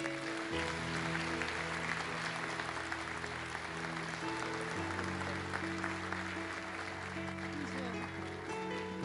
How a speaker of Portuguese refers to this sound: Amém, amém. Aplauda a igreja.